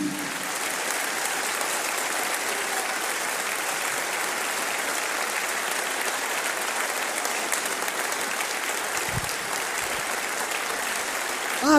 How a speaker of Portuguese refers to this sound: Pare um minuto e aplaude e glorifique a Ele, apenas por um minuto.